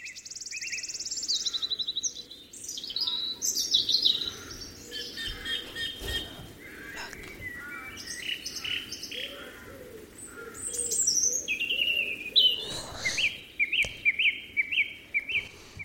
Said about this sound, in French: Ça me fait penser à des oiseaux dans la nature. Ça me fait penser à, à la jungle avec des oiseaux et euh, un perroquet, je crois.